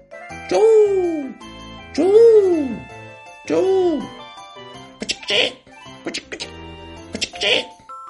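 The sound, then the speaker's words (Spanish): A voice imitates bird calls to attract birds: three rising-and-falling hooting whoops at a steady pace, followed by a run of short hissing, clicking mouth sounds. “hacer ruidos con la boca para atraer pájaros tampoco sirvió de nada.”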